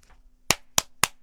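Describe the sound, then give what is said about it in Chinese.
Three hard, sharp hand claps in a quick, even rhythm, each a bright crisp smack that cuts off fast, with only faint background hiss between them and no voices. The cartoon character Dr. Pi (皮医生) claps his hands hard beside Dashi's ear. “皮医生在他耳边用力的拍了拍手”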